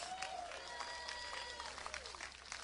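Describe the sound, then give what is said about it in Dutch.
An audience applauds God in a steady, dense wash of clapping, with scattered sharper claps standing out and faint voices or cheering mixed in beneath. “Geef God eens een applaus, man.”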